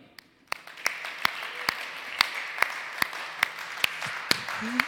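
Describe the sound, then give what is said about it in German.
Audience applause for a guest who is an expert on tastes and smells: a steady wash of clapping, punctuated by sharp, evenly spaced individual claps that ring out at a moderate rhythm for several seconds. “Deswegen lasst uns ihm mal einen Applaus geben.”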